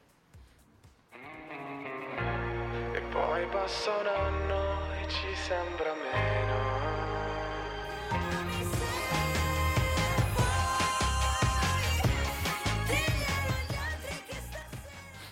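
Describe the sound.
An Italian pop song, number one in a chart countdown, plays loudly, a vocalist singing over a deep, pulsing bass line; after a quiet start the arrangement fills out with brighter, busier instrumentation halfway through.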